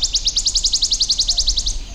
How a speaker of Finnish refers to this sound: Talitiainen oli taustalla.